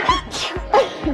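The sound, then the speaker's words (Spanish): A quick run of small, sharp sneezes during a live program in cold air, three or four in close succession, each a brief breathy burst, with no talking. “Salud.”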